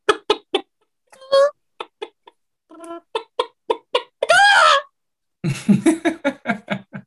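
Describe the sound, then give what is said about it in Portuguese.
A person imitates a chicken with a run of short, clipped clucks, breaking into a loud drawn-out squawk, then a fast burst of rapid clucking, clear, without any talking. “Você consegue, você consegue, replicar o som de um desses frangos para não deixar passar essa, essa oportunidade?”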